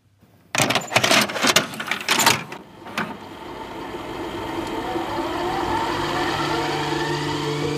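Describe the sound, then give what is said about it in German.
A series of plastic clacks and rattles as cassette number 3 is pushed into an old cassette recorder, then a firm click and a steady mechanical whir of the tape starting to run. “ich kann die Kassette mit der Nummer 3 in unseren alten Kassettenrekorder legen.”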